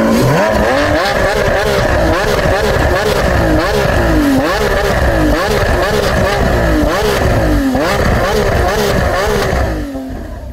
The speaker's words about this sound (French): son très caractéristique que vous venez d'entendre, c'est la sonorité d'un moteur V12 d'une Lamborghini Aventador SVJ, qui est la version la plus performante, évidemment, des voitures sport produites par Lamborghini à l'heure actuelle.